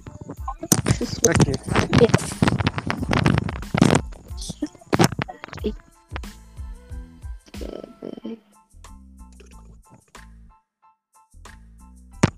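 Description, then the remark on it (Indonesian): Loud, gusty wind buffets the microphone in rumbling, crackling bursts for several seconds, then eases off, leaving quieter low hums and faint voice-like sounds. “Angin oh, guys.”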